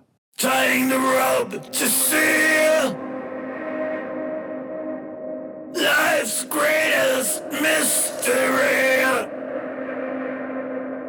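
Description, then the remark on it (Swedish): A loud, strained sung vocal in two phrases. Each is followed by a darker, muffled reverb and delay tail with the highs rolled off by a low-pass filter that closes while he sings and opens afterwards. The delay, roughly a quarter note, lingers between and after the lines before the bright voice returns. “jag satte ett lågpassfilter som, som stänger lite grann när han sjunger och som öppnar upp sig sen”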